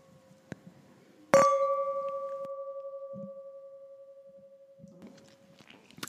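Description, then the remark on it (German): A single bright clink of wine glasses of Riesling touching in a toast, followed by a long, clear ringing tone that slowly fades away, with faint quiet movement in the background. “So, wollen wir? Wollen wir. Prost. Prost.”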